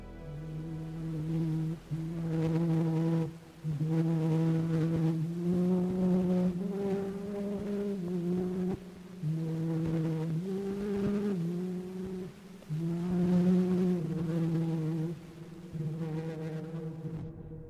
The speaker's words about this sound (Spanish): La grabación es el mismo Scott cantando la famosa canción popular francesa Au de la Luna.